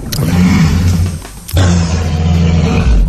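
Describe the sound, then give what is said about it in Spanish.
A walrus, one that climbs onto boats in Norway, bellows in two long, loud, throaty roars with a short break between them. The deep, rumbling calls fill the whole clip, with no talking. “La curiosa historia de una morsa que por lo visto se sube a barcos en Noruega”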